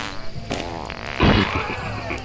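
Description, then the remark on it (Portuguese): A loud, buzzy fart from the character Hulk, who has gas, blasts out: a low sputtering rasp lasting about a second before trailing off into a softer rumble, with no one speaking. “Soltou um pum na minha frente!”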